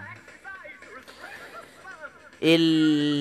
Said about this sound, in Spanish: Pero ahí llegaron ya nuestros amiguitos eh, más chiquititos. los gorriones.